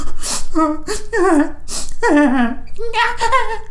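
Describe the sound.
A voice imitates actress Toni Collette crying hard on screen, with sharp gasping breaths and wavering, sobbing wails in quick bursts, loud.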